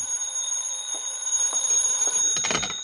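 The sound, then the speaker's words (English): A telephone rings with a steady, shrill, high-pitched tone that holds for about three seconds. A brief clatter sounds near the end, and no one speaks. “Then the phone rang.”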